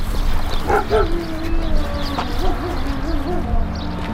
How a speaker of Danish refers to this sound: Hvor er der hund henne? Er det derinde?